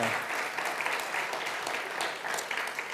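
A crowd claps steadily for the full three seconds, a dense, even patter of many hands with no voices rising above it.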